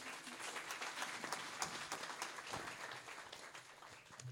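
An audience at a church celebration applauds steadily for several seconds to encourage a woman coming up to share her testimony, a dense, even wash of many hands clapping with no voices rising above it.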